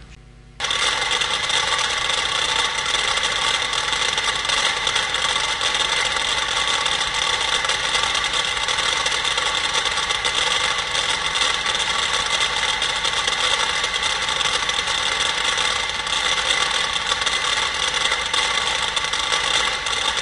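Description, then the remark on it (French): A dense, continuous clatter of 100 metronomes set to different speeds, their mechanical ticks overlapping at different tempos and blurring into a steady rain-like patter that starts abruptly and stays loud throughout, with no voices. “Donc vous allez entendre 100 métronomes qui sont réglés à des vitesses différentes, et petit à petit, ils vont chacun aller vers, vers leur fin et on va avoir une polyphonie qui se délite.”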